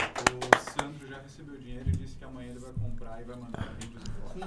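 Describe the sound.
A few sharp, scattered claps ring out at the start, uneven rather than steady applause, before a man's voice takes over and keeps talking through the rest.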